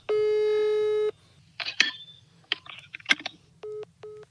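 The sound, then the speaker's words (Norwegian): A steady electronic phone tone on a call to the Dagbladet tip line holds for about a second, then clicks and clatter sound as the call is hung up, followed by two short busy-signal beeps. “Ja, de la på, la på begge numrene.”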